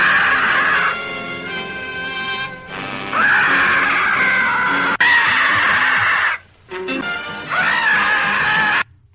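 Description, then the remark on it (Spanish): A supposed pterodactyl cry: loud, shrill, rasping screeches with wavering, bending pitch, repeated in about four long bursts separated by brief gaps, with no talking. “Es un supuesto perodáctilo, os pensáis que estoy loco, pero una mujer fue testigo de este animal, incluso le hizo una foto desde una avioneta donde iba.”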